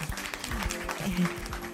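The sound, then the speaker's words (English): A steady burst of extended applause in the Hollywood Life studio, many hands clapping in a dense, continuous patter at moderate loudness, with faint voices mixed underneath. “There is, and lots of extended applause.”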